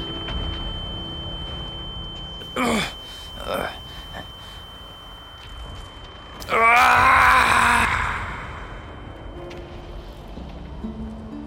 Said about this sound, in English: You don't see the bloodshed directly, but you hear their horrible screams.